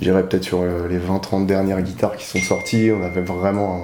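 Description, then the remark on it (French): A thin, steady electronic tone from a phone rings out partway through, holding as a faint high beep beneath continuous conversational speech. “t'inquiète, c'est un téléphone, ils croiront que c'est leur.”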